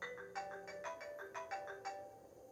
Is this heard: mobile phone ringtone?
yes